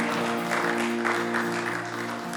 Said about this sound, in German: Wenn du dich, aber ja, dafür kann man schon Applaus geben.